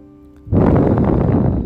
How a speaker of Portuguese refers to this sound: Muito bem. Faça uma respiração mais profunda agora.